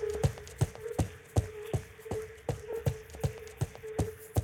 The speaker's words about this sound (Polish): Poklikałeś tam sobie w komputer? Cały czas sobie klikam.